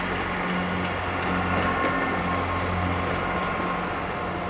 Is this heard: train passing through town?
yes